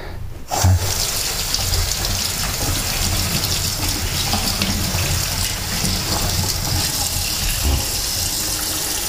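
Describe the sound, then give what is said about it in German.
A tap turns on after a brief pause and water gushes steadily into a bowl, a continuous splashing rush that carries on evenly to the end with no voices. “Hier, Digga, trink Wasser.”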